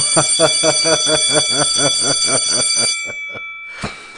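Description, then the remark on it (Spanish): A bell rung vigorously in fast, repeated strikes, its bright ringing tones sustaining loudly for about three seconds before fading, followed by a brief thump near the end. “toca esa campana con, con empeño, con empeño”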